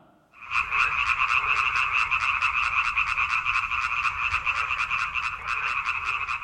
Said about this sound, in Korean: 네, 개구리 소리입니다. 연못가의 개구리가 겨울잠에서 깨서 꽉꽉꽉꽉꽉꽉 소리를 내네요. 오늘이 경칩이죠. 경칩이면 개구리도 입 떨어진다고 겨울잠 깨서 울 때 됐죠. 경칩이라 반가운 소리고요. 봄이 다 왔다는 소리고요.